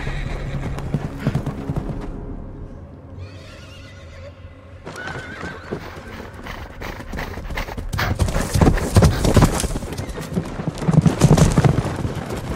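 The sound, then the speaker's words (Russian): Rapid hoofbeats of a galloping horse pound in a steady rhythm, growing louder as it passes, with a horse whinnying along the way. Ser Jorah Mormont is riding back from the attack, galloping past the ranks. No one speaks. “И тебе страшно, когда ты видишь, что сэр Джора Мормон возвращается из этой атаки, когда потухли эти огоньки, и когда он скачет и пролетает мимо рядов, и ты понимаешь, что если этот человек испугался, то там что-то совсем страшное.”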